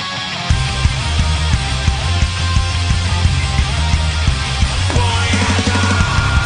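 A loud, dense song by a Spanish-language band kicks in after a brief pause, the singer shouting a word right at the start, with steady pounding drums, heavy bass and a shouted vocal riding over the full mix throughout.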